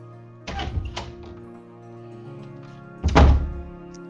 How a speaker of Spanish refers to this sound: Se abre la puerta y entra Rosa.